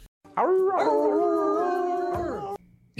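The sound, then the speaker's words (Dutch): A group of people howls together like dogs, as the Diamond Dogs from the Apple TV Plus series Ted Lasso, in one loud, sustained cry that rises at the start and holds for about two seconds before breaking off. “Want we hoorden de Diamond Dogs uit Ted Lasso.”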